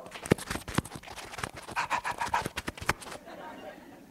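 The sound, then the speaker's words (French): Someone imitates a dog panting with a quick, uneven run of breathy huffs for about three seconds before it trails off into quiet room noise. “Ça, c'est un chien, OK?”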